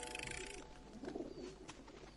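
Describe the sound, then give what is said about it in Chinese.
Goofy's magic-act pigeons coo outside in soft, throaty, low-pitched warbles, a rolling burble that rises in the middle and trails off, with a faint steady tone sounding at the start. “好主意，米妮，让我们注意听鸽子的咕咕声。”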